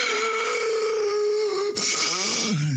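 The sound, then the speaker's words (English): A voice imitates the strained, wheezing breathing of a man having an asthma attack: a long, tight, whistling drawn breath, then a second raspy breath that slides downward in pitch. Fairly loud, with no talking. “and he was ashen white, and he was making this kind of real kind of painful breathing noise, a sort of like.”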